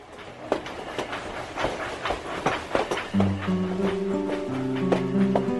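A train travelling to Arles through snow-covered land rolls along the rails with a steady rumble and irregular clickety-clack beats over the joints; about halfway through, sustained whining tones rise over the noise. No one speaks.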